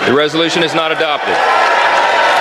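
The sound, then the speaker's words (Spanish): A voice speaks briefly, then a dense, steady wash of applause from many hands fills the House chamber. The 212 Democrats and four Republicans who voted against an impeachment resolution applaud as it fails 214 to 216. The applause holds loud and even to the end. “Los aplausos son de los 212 demócratas que han votado en contra y a los que se han unido cuatro republicanos, que han considerado que Mallorcas no ha hecho nada para ser el primer ministro en más de 150 años en ser sometido al impeachment.”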